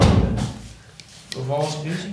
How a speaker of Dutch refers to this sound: Maar gewoon de deur toe, anders.